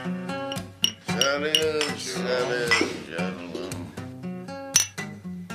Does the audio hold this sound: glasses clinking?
yes